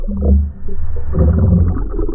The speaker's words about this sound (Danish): Din søn står med hovedet nede i en spand vand. Jeg kan ikke trække vejret. Han hygger sig.